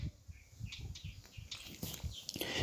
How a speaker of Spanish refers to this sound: ahora se acaba de parar un pajarito en mi misma cama paraguaya. Bebé, de unos 15 centímetros debe tener. lo sentí.